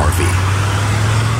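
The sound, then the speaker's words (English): A deep, steady rumble from the Cummins V8 turbo diesel engine of a 2016 Nissan Titan XD pickup truck under load while towing, droning loudly and evenly for the whole moment with a broad road-noise wash. “This is the sound of the Cummins V8 turbo diesel in the new 2016 Nissan Titan XD.”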